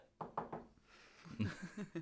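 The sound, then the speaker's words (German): Three quick, fairly sharp knocks on a wooden surface in an even rhythm, followed by a voice speaking briefly afterward. “Voll Klopf auf Holz.”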